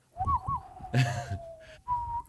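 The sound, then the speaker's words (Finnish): Someone whistles a short western-style melody: a few sliding notes, then a long held tone, with a brief breathy burst of noise partway through. “en mä osaa viheltää sitä heidän.”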